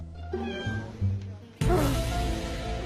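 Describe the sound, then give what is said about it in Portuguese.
A cat named Celestino meows repeatedly, with drawn-out, wavering cries; a louder, brighter, more strained meow bursts in near the end and trails off. No speech is heard. “Pense num gato testado.”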